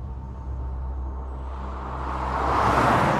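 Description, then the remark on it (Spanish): A car engine hums steadily at low pitch, then swells louder and brighter toward the end as the car is driven recklessly fast at night along Avenida Aguascalientes through a city with no traffic, no voices around. “Esa noche, aprovechando el nulo tráfico de la ciudad, acelera su auto de manera imprudente.”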